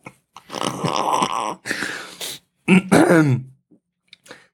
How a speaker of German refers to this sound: oh, Entschuldigung, ich musste kurz husten.